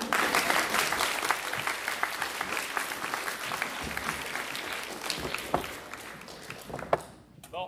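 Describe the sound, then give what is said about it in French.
An audience claps steadily for about seven seconds, a dense crackle of many hands with a few sharper claps standing out, before it thins and fades near the end. “On peut l'applaudir, merci.”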